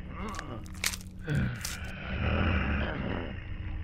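Wet chewing and crunching sounds blend with a low, rumbling growl, fairly loud, with sharp bursts early on and a steady guttural roar building through the second half.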